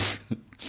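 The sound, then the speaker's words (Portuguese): A quick splutter: a breathy burst of air, a short throaty catch, then another rush of breath, as someone chokes briefly on beer. “Ah, eu vou morrer afogado aqui.”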